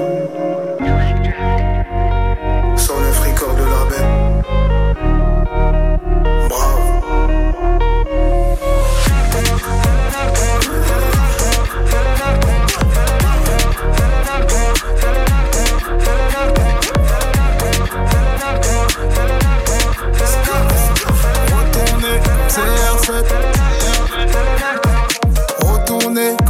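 A rap track plays loud and steady, with deep booming bass and a regular, punchy beat driving through, the full mix filling the space from start to finish.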